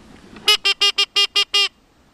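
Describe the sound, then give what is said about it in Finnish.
A duck call blown in a quick series of seven loud, reedy quacks, evenly spaced, with no one talking. “Kyllä, mä voisin tulla kurkkaan tota, jos mä olisin sorsa. Tällä ne on varmaan ruovikossa tai jossain pellonlaidalla ojassa niin puhallellut.”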